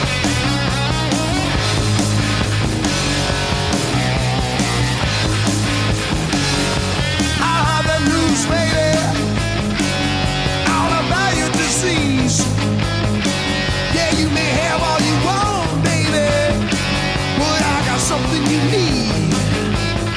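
A loud, dense rock song from a 2015 remaster plays without a break, electric guitar lines bending and soaring over a steady, prominent bass and driving drums. No one speaks.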